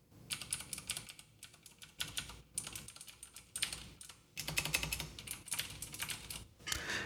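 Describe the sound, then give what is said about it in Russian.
Rapid typing in bursts on a clicky keyboard, with short pauses between runs of keystrokes; fairly crisp, no voices present. “И альтернативу я купил, которая щелкает. Сейчас даже схожу, покажу вам, как щелкает.”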